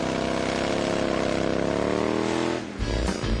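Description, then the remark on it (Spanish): A motorcycle engine revs loudly, its pitch climbing steadily for a few seconds before cutting back to a lower, rougher idle near the end. “Si tienes una moto, con esta noticia rodarás cualquier cuesta, incluso la de enero.”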